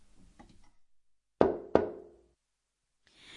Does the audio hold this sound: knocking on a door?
yes